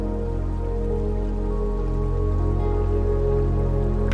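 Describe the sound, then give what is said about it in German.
Steady, continuous rushing of river water flowing past larger rocks, a dense even wash with occasional splashy droplets, moderately loud, with no voices. “Es ist auch hörbar, wie das Wasser an größeren Steinbrocken vorbeiströmt. Das kontinuierliche Rauschen ist beruhigend, meditativ und du konzentrierst dich ganz darauf.”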